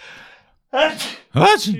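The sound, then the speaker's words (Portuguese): A loud sneeze: a faint breathy build-up, then two sharp voiced bursts in quick succession, the final one the strongest. “Uh, desculpa, acho que vou espirrar, peraí.”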